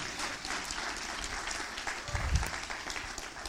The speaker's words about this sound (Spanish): Alguien dice amén. Alguien dice amén. Alguien le da un aplauso fuerte al Señor que lo crea conmigo.